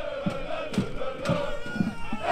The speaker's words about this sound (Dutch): Oh, maar wat een sfeertje, hè? Hoor je dat al? Hoor je die supporters zingen? Die eh, Aken supporters. Er staat hier gewoon tien man in mee.